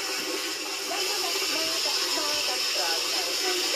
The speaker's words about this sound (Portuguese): Ó, o tanque aqui de casa, tá vendo? Aqui, uhum. certo? Uhum. Eu tô enchendo de água, ó.